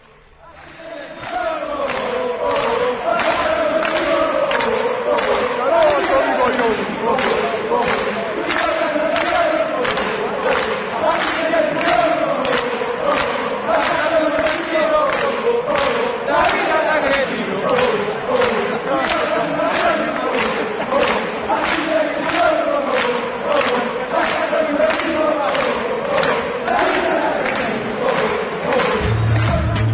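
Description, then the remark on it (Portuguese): A large crowd of AS Roma football supporters chants together in unison at Juventus of Turin, loud and sustained, with rhythmic claps or thumps beating steadily under the singing throughout. “Vamos ouvir agora a torcida da Roma cantando para os do os da Juventus de Turim.”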